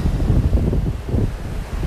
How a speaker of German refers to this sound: jetzt kommt eine Welle und meine Füße.